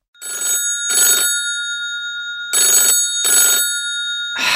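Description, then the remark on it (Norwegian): An electronic telephone ring of an outgoing call sounds in two pairs of short bursts separated by a pause, clear, with bright sustained tones and no voices. “så jeg tenker vi gir eh, ordet til han, tar en liten eh, telefon.”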